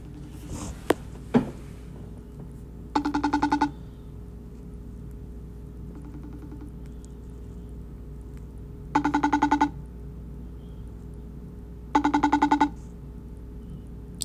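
An old, slow phone's outgoing ringback tone buzzes in short repeated bursts about every three seconds, one fainter than the rest, over a quiet low hum with a couple of soft clicks at the start.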